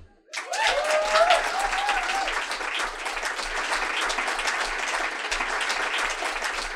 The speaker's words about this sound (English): Another clap for everybody.